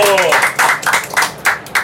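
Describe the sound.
An audience applauds loudly in a dense burst of clapping, mixed with shouts and cheering voices, filling the whole short moment close and energetic.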